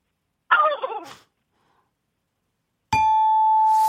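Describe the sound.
A voice imitates a turkey startled by a field mouse with one brief, harsh squawk that falls in pitch. After a silent pause, a steady ringing ding tone sounds for about a second.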